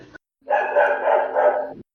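A neighbour's dog lets out one loud, drawn-out bark that stretches into a sustained yowl for over a second, after a brief clipped sound at the start. No one speaks.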